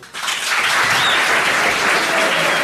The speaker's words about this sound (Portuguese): Muito aplaudido então